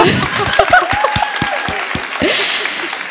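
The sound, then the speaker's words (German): An audience applauds with steady, dense clapping for about three seconds, a few louder individual claps standing out and some voices briefly calling out beneath it, as an invited guest comes on to join the host. “Genau, du kommst einfach mal ganz unauffällig, ohne groß Applaus. Na gut, machen wir doch.”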